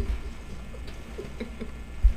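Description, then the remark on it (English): Light rain pattering in scattered, irregular taps over a low, steady rumble, fairly quiet, with one slightly louder tap near the end and no voices. “God is blessing us with rain was nothing in the forecast supposed to be rain today.”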